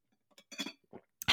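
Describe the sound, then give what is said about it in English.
Someone takes a sip of water: a soft glass clink, a few brief wet slurping and swallowing sounds, then a sharper clatter at the end, with no talking. “sorry, sip of water.”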